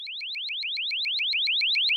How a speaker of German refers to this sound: Ein Programm durchsucht die Tonaufnahmen automatisch nach Kettensägenlärm oder Motorengeräuschen von Fahrzeugen. Wenn es etwas Verdächtiges findet, schlägt es sofort Alarm.